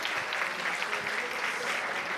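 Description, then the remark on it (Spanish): Steady, dense applause from a crowd, a continuous wash of many hands clapping at even loudness throughout, with no voices standing out, as the audience applauds a participant who has just been shown a prize. “Un muy fuerte aplauso para”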